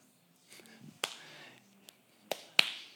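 A single person gives a few sharp, sparse claps, three crisp hits spaced unevenly across the moment, with faint murmured speech underneath between them.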